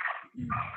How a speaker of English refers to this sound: sorry the dogs are just screaming today damn